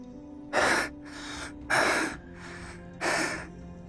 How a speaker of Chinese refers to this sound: 古天明连续且不停的大口喘气，这一回着实累着了。